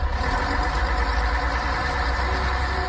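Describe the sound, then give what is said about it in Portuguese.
A large bus engine idles steadily, a continuous low rumble with a droning hum that holds at an even loudness throughout, with no voices. “O seu Alfredo andando de ônibus?”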